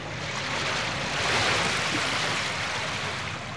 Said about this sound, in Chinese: 接着他们往下冲下了海滩，迎向怒吼的海浪声。